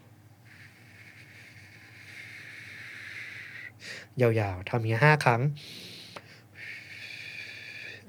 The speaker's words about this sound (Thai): เราหายใจเข้าทางจมูกปกติ ตอนหายใจออกเนี่ยเราหายใจออกหอบปากเหมือนเรากำลังจะผิวปากเราหายใจออกทางปากผ่านรูเล็ก ๆทางปากแบบนี้นะครับ หายใจเข้าออก